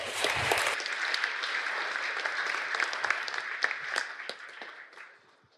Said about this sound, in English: Please give those folks a round of applause.